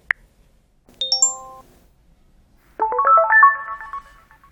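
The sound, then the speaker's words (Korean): A short electronic chime of a mobile phone text message notification as a reply arrives: a tiny click, then a bright chain of stepped tones, and after a pause a fuller, busier burst of melodic beeps, clear. “답장이 금세 도착했다.”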